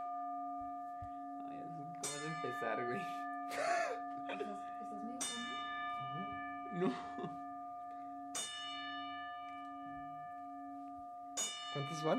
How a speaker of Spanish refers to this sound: Iniciamos el programa de hoy con las 10 campanadas para rendirle tributo a la leyenda Larry King